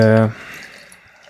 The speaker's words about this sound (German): Ich schütte erstmal ein. Schütte erstmal ein.